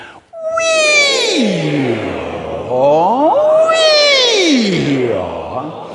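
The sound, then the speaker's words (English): A large audience doing a vocal warm-up exercise called the siren vocalizes together in a glide from a high 'we' down to a low 'or', done twice in a row, loud and sustained with no speech. “Finally, and if I can only do one, the pros call this the siren. It's really good. It starts with we and goes to or. The we is high, the or is low.”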